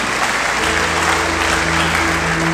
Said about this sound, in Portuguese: Glória a Deus, amém? Aleluia. Pode aplaudir Senhor Jesus. Aleluia.